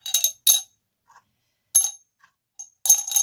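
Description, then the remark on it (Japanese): Hard lumps of rock sugar clink and rattle into the bottom of a glass jar that once held domestic pure honey, in several bright, sharp bursts, with short quiet gaps between them and a longer scattered clatter at the end. “氷砂糖を入れました。”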